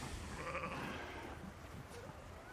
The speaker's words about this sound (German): oh, jetzt verfolgt gerade ein Schaf mein, meinen Hund, die hat gelammt und möchte ihr Lämmle verteidigen.